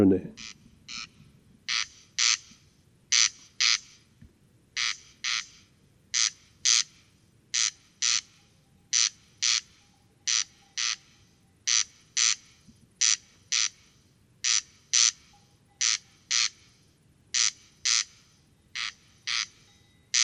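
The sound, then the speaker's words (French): A corncrake calls at 23:10 on 12 July 2018 at the Col Bayard above Gap, 1278 m altitude, with no wind, a clear starry sky and 15-16°C, repeating dry, rasping double notes in a steady, mechanical rhythm, each pair clear and harsh against a quiet background, with no voices. “Observation sonore - Le Râle des genêts”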